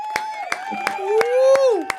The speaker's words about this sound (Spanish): ¡Aplausos, familia!